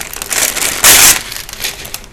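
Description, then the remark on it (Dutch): Loud crinkling and crushing of paper as it is laid on top of something, with irregular rustles and a brief denser burst near the middle before the crackling settles. No one speaks. “Ik ga er papier op doen en dan gaan we gewoon experimenteren.”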